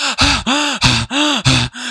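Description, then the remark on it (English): A voice imitates heavy, panicked breathing: about six loud, rapid gasps in quick succession, each a harsh voiced inhale, very close to the microphone with no other sounds. “Sorry, I just breathed heavy into the microphone.”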